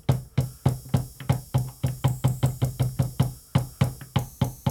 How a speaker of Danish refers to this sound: Vi skal lige have noget open hi-hat på. Uh. God noisy hi-hat her åben hi-hat, men den hænger lige langt til nok, synes jeg.